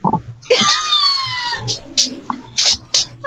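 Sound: dog whimpering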